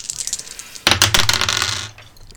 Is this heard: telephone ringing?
no